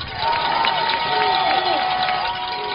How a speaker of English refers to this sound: Crowd on their feet, the cowbells are going.